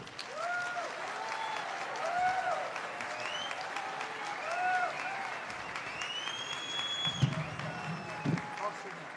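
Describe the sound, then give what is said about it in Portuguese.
Sustained applause from a large audience welcoming professor Clóvis de Barros Filho, a dense steady wash of clapping with a few whoops and whistles rising above it and some low thumps near the end. “Vamos receber com muito entusiasmo, com muito carinho, com muitos aplausos, professor Clóvis de Barros Filho.”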